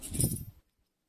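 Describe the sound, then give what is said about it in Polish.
A brief burst of silver coins, Austrian schillings of 900 fineness, clinking and rattling together as they're handled, lasting about half a second before falling silent. “Tutaj macie austriackie mm, e, szylingi.”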